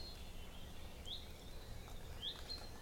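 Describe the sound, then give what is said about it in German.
Two faint, brief chirps of small birds outdoors, spaced about a second apart, over a quiet outdoor background with a thin steady high hum, like insects. “das Zusammensein mit allem, was ist, die Natur, die Vögelchen.”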